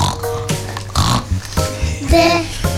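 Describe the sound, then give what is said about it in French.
A voice mimics a pig with a quick series of grunting, snorting oinks, loud, in a rough rhythmic burst over a low steady background, as part of a sung list of animals entering Noah's ark. “Des cochons qui font”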